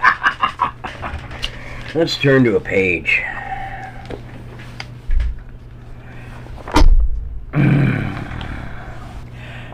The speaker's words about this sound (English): Oh, you love my squeaky chair.